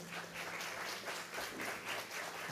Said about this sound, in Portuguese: Aleluia, glória a Deus. Quem está feliz aqui, dá uma forte salva de palmas para o Senhor.